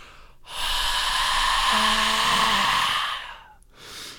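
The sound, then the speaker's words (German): A voice imitates the long, heavy exhaled breath an interview partner makes when answering a question, a broad breathy rush lasting about three seconds, followed by a brief softer breath. “Und die Person antwortet dir und es macht nur so ein.”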